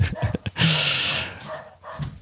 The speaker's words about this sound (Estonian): ma panen vahepeal see akna kinni, mingi koer hakkas haukuma ilusti